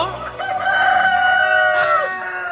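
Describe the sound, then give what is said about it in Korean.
A rooster crows in one long, loud, drawn-out call lasting a couple of seconds, with faint chicken clucking underneath, at a hometown family house, without any talking. “지붕을 쳐다보던 닭 몇 마리는 내 모습에 어떻게? 그냥 기절했다니까.”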